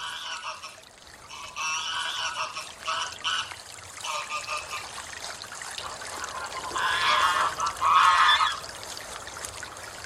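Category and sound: bird, greylag geese honking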